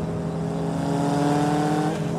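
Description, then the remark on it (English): A car engine drones steadily and loudly for a couple of seconds as cars are passed on the drive back to the office, a constant motor hum like traffic moving along a road, with no voices. “On the way back, I look at the windshield stickers of the cars we pass.”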